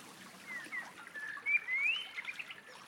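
A background recording of quiet woodland birdsong accompanying a poem reading, with thin whistled notes and scattered chirps rising briefly over a soft, steady outdoor background. No one speaks.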